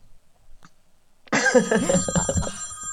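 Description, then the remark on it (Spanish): After a second of near silence, an old-fashioned telephone bell ringtone suddenly starts ringing, loud, with a bright, continuous jangle that keeps going until the end. “Oye, ese teléfono es como de, de la Guerra Fría.”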